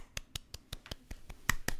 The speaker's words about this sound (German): Ja, vielen, vielen Dank. Dank. Äh, Applaus.